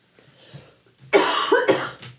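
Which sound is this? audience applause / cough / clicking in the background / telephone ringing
cough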